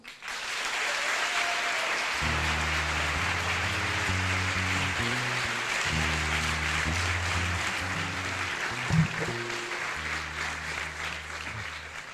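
Sustained audience applause welcoming a speaker to the stage, a dense steady clatter of many hands clapping at even loudness, with a low musical tone playing underneath.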